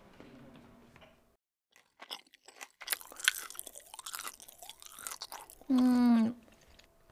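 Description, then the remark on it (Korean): Crunchy chewing of food, with irregular crisp bites and munches over several seconds, then a short, loud tonal hum near the end; someone is eating up food that had been stored frozen. “지금 냉동해둔 것도 다 먹었네.”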